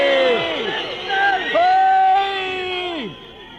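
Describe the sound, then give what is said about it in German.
A crowd at a rally in the GDR (East Germany) shouts loudly, many voices overlapping in long, sustained cries that rise and fall together for a few seconds before fading off. “Oh, ich glaube, jetzt beruhigen wir uns mal wieder, denn mit Schreien erreichen wir nichts.”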